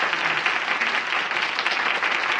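Steady audience applause, many hands clapping in a dense, continuous wash of sound at an even, fairly loud level throughout, with no one speaking.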